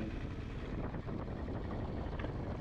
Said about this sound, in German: ich, zum Beispiel jetzt, ich fahre Motorrad, ich liebe das, ist cool